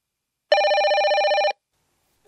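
A telephone bell rings in one loud burst of rapid trilling lasting about a second, then stops; after a short silence a voice just begins at the very end.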